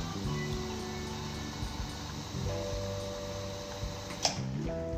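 An espresso machine whines and hums steadily during espresso extraction, as hot water passes through a thin heat-exchange tube to the group head and showers onto tamped coffee grounds in the portafilter; a continuous mechanical drone with tonal overtones, broken once by a brief click near the end.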